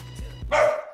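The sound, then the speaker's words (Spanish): A dog gives a single short, fairly loud bark, preceded by a couple of soft low thumps, with no talking. “no te preocupes, solo faltaría que en este no pudieran ladrar los perros.”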